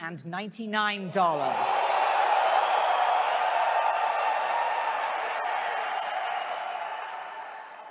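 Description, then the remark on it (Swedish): At PlayStation's press conference in Los Angeles, a man announces the PlayStation 4 will be available at $399, then a large audience erupts into loud, sustained cheering and applause, a dense roar that holds steady for several seconds before easing slightly. “Det var ett sånt jubel.”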